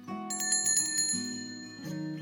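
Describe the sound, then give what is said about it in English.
A bright bicycle bell rings several times in quick succession, loud, with metallic overtones lingering between strikes; no voices. “Once upon a time, in a lively neighborhood where every decision was celebrated with the ringing of a cheerful bell”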